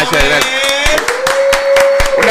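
Steady, rhythmic clapping from a small group, sharp claps landing about three times a second, with a sustained tonal voice or cheer running underneath throughout.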